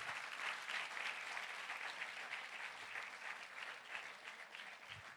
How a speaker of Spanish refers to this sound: Y cuando la presencia de Dios llena un lugar, dale fuerte ese aplauso a Dios. Hácelo fuerte.